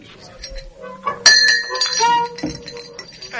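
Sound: glasses clinking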